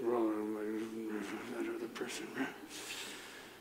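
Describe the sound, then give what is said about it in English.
A man imitates grumbling with his voice: a low, drawn-out groan followed by breathy, indistinct muttering and snorting sounds, fairly loud, lasting a few seconds. “If not, it is probably because there is a grumbling that is silencing the truth in your heart.”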